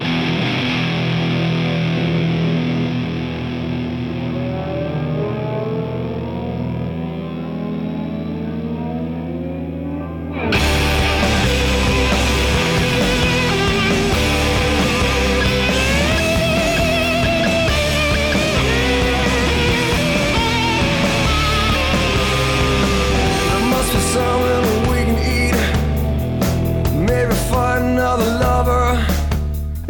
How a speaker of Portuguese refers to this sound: O disco começa já com uma guitarra e uma distorção gravíssima, né?